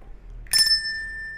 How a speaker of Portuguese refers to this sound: Rapaziada, não esquecem, se inscreve no canal, ativa o sininho.